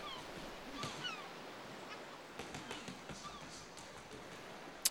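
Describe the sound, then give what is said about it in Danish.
Local seagulls cry and squawk in the background by the Pacific Ocean over a steady wash of background noise, with a few scattered calls and one sharp click near the end. “Mågerne skriger i baggrunden”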